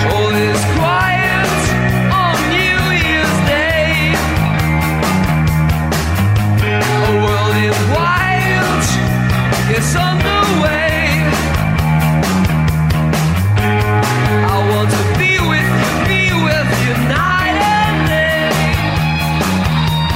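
A rock song by an Irish band plays loud and steady for the whole stretch, with driving drums, sustained guitar and keyboard chords, and a full band sound, with no talking over it.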